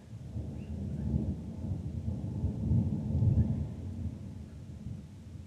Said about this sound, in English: As the thunder grows on the horizon, you remind yourself you are still safe and the rain is not coming for your spot on the hill tonight.